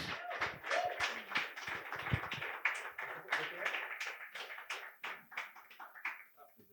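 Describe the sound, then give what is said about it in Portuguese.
A small group applauds steadily for several seconds to welcome two guests as they are called in, dense overlapping claps gradually thinning toward the end, with some faint voices mixed in. “Vamos chamar o jovem conservador de direita e o seu estagiário. Palmas para eles.”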